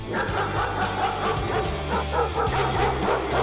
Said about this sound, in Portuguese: Faial deteve-se diante de uma porta fechada, de pelo eriçado, corpo em posição de ataque, a ladar furiosamente.